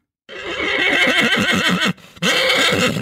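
A horse named Montana neighs loudly, a long shaky whinny with a brief pause before a second burst, heard on its own with no talking; the horse is soon to become lion feed at Ræ Dyrepark.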